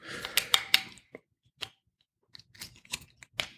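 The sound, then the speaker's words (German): A wine bottle with a granulated cork being uncorked: a flurry of sharp clicks and scratchy scraping, a quiet pause with a few isolated ticks, then another burst of creaking, clicking sounds. No voices. “Dann springe ich schnell auf und hole die zweite Flasche. Wein. Mach ihn mal auf.”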